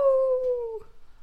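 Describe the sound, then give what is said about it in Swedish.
A person lets out a single sustained howl imitating a dog, a steady falling tone lasting under a second, followed by a brief breathy trail-off. “Måste man låta som en hund Ja, gud visste inte du det?”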